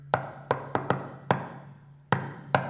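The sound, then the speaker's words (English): A friend's rhythmic knock on a door: five raps in a bouncy pattern, a brief pause, then two final knocks, like a playful signature knock. Clear, with no voices. “And then there's the, uh, there's the third knock that I want to talk about today, and that is this knock that you hear.”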